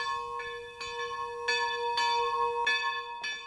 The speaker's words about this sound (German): die Kirche, auch das Glockengeläut, der Ton von den Glocken, das gehört einfach daher in das Tal und ganz gleich aus welcher Ecke man kommt, ins Tal hinter und sieht die Kirche, dann weiß man, man ist angekommen.